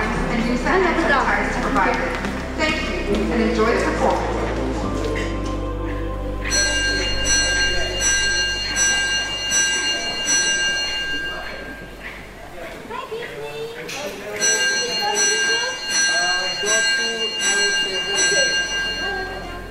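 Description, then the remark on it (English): Bright, ringing bells chime in rapid repeated strikes in two bursts, loud, over a busy murmur of crowd voices and movement at the reopening of the Esplanade performance space in Singapore for SIFA 2022. “You've been hearing the reopening of a performance space in Singapore for SIFA 2022.”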